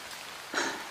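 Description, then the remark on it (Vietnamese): Heavy rain pours down in a forest in a dense, steady hiss that swells louder about halfway through, with no voices. “Mưa thì càng ngày càng nặng hạt hơn.”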